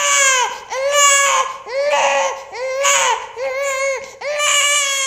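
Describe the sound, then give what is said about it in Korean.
A newborn baby cries loudly just after birth, in a series of about five strained, wavering wails with short gasping breaks between them. “아이의 아기가 태어났다.”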